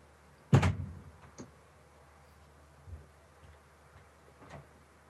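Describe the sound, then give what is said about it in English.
A front door shuts with a single loud thud, followed by a few faint clicks and soft knocks, then quiet. “Wait, let me shut the front door because I don't want to accidentally say a word in Spanish and not realize it and have my neighbors get pissed and grab a beer.”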